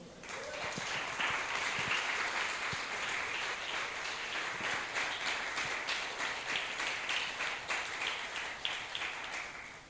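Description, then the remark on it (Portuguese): An audience applauds the Lord steadily for about ten seconds, a dense wash of many hands clapping together at a consistent, fairly loud level with no one speaking. “Vamos aplaudir o Senhor?”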